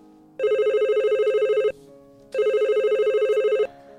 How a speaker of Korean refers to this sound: 눈이 펑펑 내리던 어느 겨울밤 창밖을 보고 있는데 전화 한 통이 걸려왔고 저는 그 전화가 그 애에게서 온 전화란 걸 직감적으로 알 수 있었습니다.